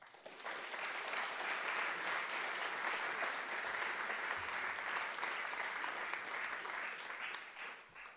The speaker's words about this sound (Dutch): Dames en heren, graag een applaus voor Herman van Rompuy.